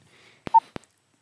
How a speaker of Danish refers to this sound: Jamen, øh, lad os prøve at ringe. Jeg tror, ja. jeg har tastet det rigtigt. Der er så mange cifre, at jeg er lidt i tvivl.